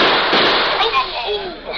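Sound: gunshots fired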